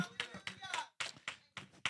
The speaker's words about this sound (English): Come on here. Clap your hands and say hallelujah.